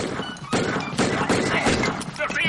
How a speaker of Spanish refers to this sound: Freddy les dispara.